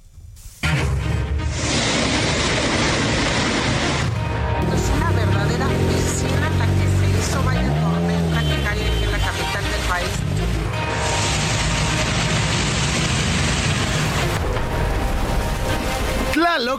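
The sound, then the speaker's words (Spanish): Heavy rain pours down in a steady, loud roar during a strong storm over the Valley of Mexico, with rushing water throughout and muffled voices rising briefly in the middle. “esta fuerte tormenta que se abatió ayer sobre el Valle de México, provocando algunas afectaciones.”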